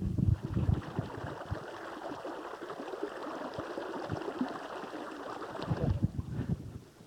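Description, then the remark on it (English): A babbling brook fed by a very cold spring trickles and gurgles steadily, a continuous bright rush of water with small splashing bursts, heard alone without any voices. “That is cold spring, a babbling brook, and very, very cold.”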